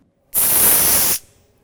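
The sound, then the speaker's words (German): A single breathy hiss, fairly loud, bursts out for just under a second and cuts off abruptly, like a voice imitating a dragon breathing fire. “Oh, ich kann Feuer spucken.”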